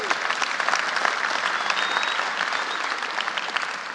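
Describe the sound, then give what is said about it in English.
The audience of the Reformed Church of Los Angeles claps steadily throughout, giving the Lord a round of applause, a dense, sustained wash of many hands at an even, fairly loud level with no voices standing out. “So, uh, on behalf of my family and my, yeah, give the Lord, give the Lord a round of applause.”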